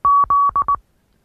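Morse code for the letter Z: a steady mid-pitched tone keyed as two long beeps followed by two short ones, crisp and clear, then silence.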